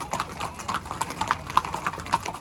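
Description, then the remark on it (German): Hooves of ridden racehorses clip-clop steadily on a training track, a quick regular rhythm of sharp hollow knocks, with no voices over them. “gibt jedem Einzelnen seine individuelle Order für das Pferd.”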